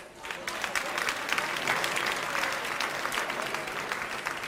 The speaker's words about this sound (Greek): Όμως, εφόσον υπάρχει μια τέτοια κριτική επιτροπή, σαν τους κυρίους που βλέπετε και θέλω το χειροκρότημά σας,